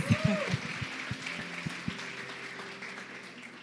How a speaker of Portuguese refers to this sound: Vamos dar um aplauso, muito obrigada.